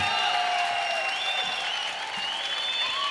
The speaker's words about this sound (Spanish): Eh, muchas gracias por aguantar la lluvia y muchas gracias por vuestros aplausos y por vuestro cariño.